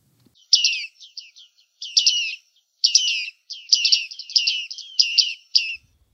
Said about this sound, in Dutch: Nou, ik hoor vooral een vogel die mij eh, zo ongeveer anderhalf jaar lang heeft genegeerd.